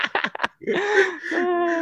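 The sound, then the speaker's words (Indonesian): A few quick, breathy gasps followed by a long voiced, strained exhale, like someone catching their breath after exertion. “lu santai napas”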